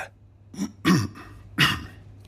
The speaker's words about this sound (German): Ich stehe nun in meinen Stadtwerken vor meinen Mitarbeitern und räusper mich für die Ansprache der neuen Epoche.